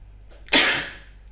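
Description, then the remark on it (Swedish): A single sneeze: a faint breathy intake, then a sharp, loud burst of air that fades out over about half a second, with no talking. “Prosit.”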